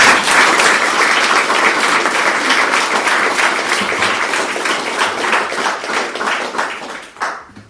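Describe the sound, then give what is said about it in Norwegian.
Sustained audience applause for party candidates standing in an election, before they start their presentations: a dense crackle of many hands clapping at a steady loud level, easing off and fading out in the final second with no voices. “Så jeg syns vi skal begynne med å gi dem en liten applaus før de starter.”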